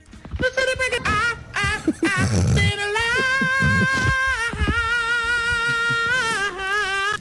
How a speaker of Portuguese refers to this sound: Portanto, uh, uh, já ouvimos o grito da senhora, vamos recordar o grito da senhora, não é?